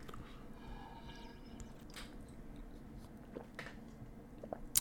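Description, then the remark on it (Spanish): Someone quietly sips water that still tastes of chlorine, with a few soft gulps and wet mouth clicks spread over a few seconds, ending in a slightly louder swallow. No one speaks. “Voy a tomar tantita agüita.”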